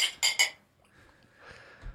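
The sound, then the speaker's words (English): Glasses clink together three times in quick succession in a toast, bright, with a ringing tone. Faint, low background noise follows. “Cheers. Cheers, Cheers, guys.”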